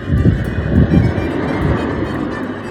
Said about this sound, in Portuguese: Dois carros passando. De uma vez, só pra demorar mais tempo. Com barulho.